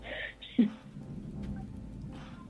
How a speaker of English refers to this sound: Uh, j- just a note um, we're getting cloud to ground lightning out here with lights flickering.